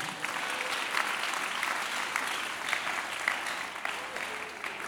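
A crowd at a worship centre applauds steadily for about five seconds, a dense wash of many hands clapping at an even level without pause, with no voices standing out.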